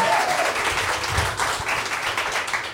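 A crowd applauds steadily, many hands clapping in a dense, crackling wash of sound that stays loud and even for a few seconds without any talking.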